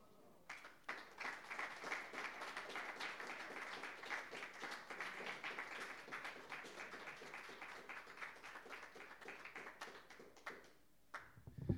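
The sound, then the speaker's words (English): An audience applauds readers after their reading, clapping steadily for about ten seconds in a dense wash of many hands at a fairly even level before it trails off abruptly near the end. “Let's go ahead and give them another round of applause for their reading.”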